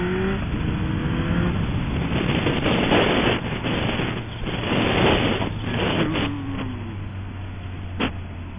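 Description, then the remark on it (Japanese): Steady road traffic with cars rushing past, the whoosh swelling louder a couple of times as vehicles go by, over a continuous low engine rumble; no one speaks. “きましたよ車はいっぱいですかね構並んでるなこれ。”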